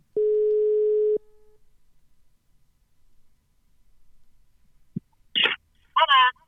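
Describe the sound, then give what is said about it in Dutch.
A single steady telephone ringing tone sounds for about a second as a call is placed to ask whether someone has had her test yet, followed by several seconds of near silence before a short click and a brief voice answering. “dus zullen we even bellen, even kijken of ze die test al gehad heeft inmiddels?”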